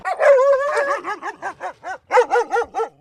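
dog barking

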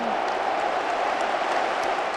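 stadium crowd cheering

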